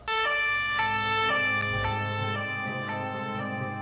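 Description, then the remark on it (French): A police car drives off with its emergency lights on, its loud siren wailing in alternating stepped tones over a low engine rumble, fading slightly as the car pulls away. “Le policier nivique du feu entra dans sa voiture et s'en alla. Gyrophare allumé, évidemment.”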